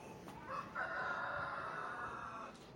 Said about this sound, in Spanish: Ya lo dice el gallo también. Ya lo acaban de oír. No quisiera. El gallo está conmigo, está de acuerdo.